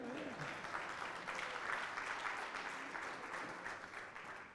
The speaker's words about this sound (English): Thank you, choir. What an awesome song. Hallelujah. What a Savior. Yeah, y'all clap again. That's all right.